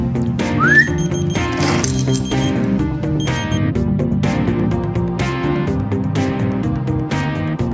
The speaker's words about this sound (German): Sind die Schlüssel wieder mal verschwunden, müssen Sie nur kurz pfeifen.